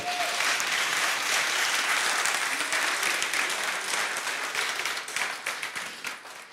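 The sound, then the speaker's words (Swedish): A church audience applauds the worship-song leaders, breaking into sustained, dense applause, many hands clapping together at a steady loud level before thinning out slightly toward the end. “Kan vi inte ge dem en stor applåd?”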